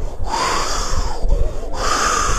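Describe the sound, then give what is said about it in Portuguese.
A voice mimics howling wind with breathy whooshing that swells and sweeps up in pitch, broken by two brief pauses for breath, moderately loud and continuous throughout. “Mas só o barulho do vento.”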